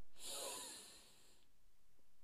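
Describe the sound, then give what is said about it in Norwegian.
A single long, airy, fairly loud inhale drawn sharply through the nose during a guided breathing exercise, lasting just over a second before fading into quiet stillness. “Pust godt inn med nesa.”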